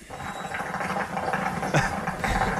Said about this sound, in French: Ça, c'est une, c'est une, c'est une mobilette